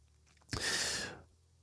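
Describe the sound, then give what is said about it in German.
A baby coughs once, a sudden sharp burst that trails off into a breathy, rasping exhale lasting under a second, with quiet background hum before and after and no talking. “Oh, jetzt hustet er, wird er wach?”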